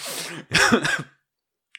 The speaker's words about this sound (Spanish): Estoy tosiendo, no es coronavirus.